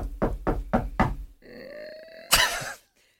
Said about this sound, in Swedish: Ska vi knacka på? Jag gör det,